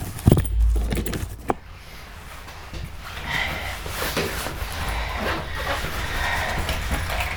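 A bunch of three keys is pulled out, jangling in a few quick, bright metallic clinks near the start, then gives way to a steady low rumble of background noise.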